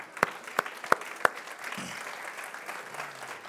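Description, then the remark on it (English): An audience claps: four sharp, evenly spaced claps ring out first, then a steady wash of applause from many hands carries on at a moderate level. “That's a clap why we believe.”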